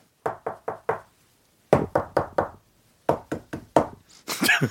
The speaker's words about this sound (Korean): 수박을 잘, 잘 고르는 비결이요. 글쎄 뭐 손가락으로 두들기는 것밖에 없는데 그러니까 그것도 내가 두들겨도 잘 모르겠어.